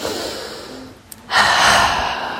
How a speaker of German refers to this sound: Wenn wir vor einer schwierigen Aufstra äh, Aufgabe stehen, dann stellen wir uns manchmal vorher hin und atmen nochmal tief ein und aus.